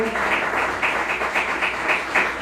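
A church audience claps their hands as an offering of praise to the Lord. It is a loud, dense, continuous burst, with a steady rhythmic pulse running through the many overlapping claps. No one is speaking.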